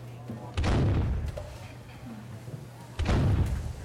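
Two booming cannon shots ring out in an office a few seconds apart, each a loud, sharp blast with a rumbling tail, over a steady low hum in the background.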